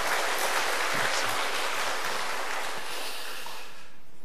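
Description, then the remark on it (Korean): A church audience at Manmin Church claps steadily in thanks and encouragement for the Zion choir after its praise performance, a dense wash of many hands evenly for several seconds before thinning out at the end. No one speaks over it. “우리 시온 찬양대 정말 하나님 앞에 찬양의 그 부활의 찬양을 마음껏 올려드렸는데 우리 하나님 영광 받으신 하나님 또 우리 찬양대 우리 감사와 격려의 박수 같이 한번 드리겠습니다.”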